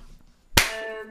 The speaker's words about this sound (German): Na gut, dann machen wir einen Applaus. Komplett übersteuert.